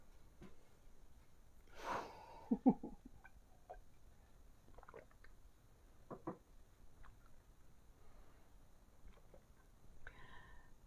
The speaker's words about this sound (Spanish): Voy a tomar un poquito de agua.